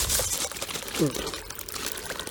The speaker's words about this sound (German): Ist auf jeden Fall ziemlich viel Wasser. Äh, so ein Wasserfall irgendwie. In so einer Höhle oder sowas.